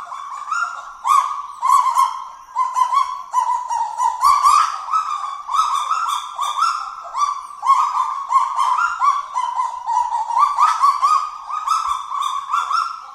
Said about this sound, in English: A kagu's call, you get a bunch of them together, they sound like a pack of barking chihuahuas, basically.